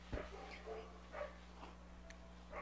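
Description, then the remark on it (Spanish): A dog barks repeatedly in short, evenly spaced yelps, fairly faint against a steady low hum, with no one speaking. “Pinche perro de mierda.”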